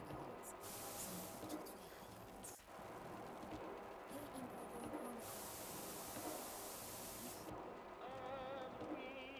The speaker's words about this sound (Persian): بازم داره بارون میاد نه چقدر بارون چقدر بارون